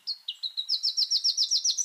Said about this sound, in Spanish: El trino del arañero cabecinegro forma parte del Banco de Sonidos de Aves Colombianas, recopilado por el Instituto von Humboldt y la Universidad de Cornell.